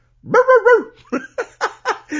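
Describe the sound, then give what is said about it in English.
A dog gives a quick run of short barks, five or six in a row, right after a louder, drawn-out tonal yowl that wavers in three pulses. “I lo- right, no barking.”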